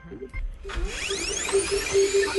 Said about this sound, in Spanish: ¿Un fax, fotocopiadora? Sí. sí.